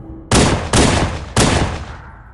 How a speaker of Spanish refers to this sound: De repente, unos disparos de pistola interrumpieron el alegre griterío de la multitud. Una mujer gritó y en algún rincón empezó a crepitar una Kalashnikov.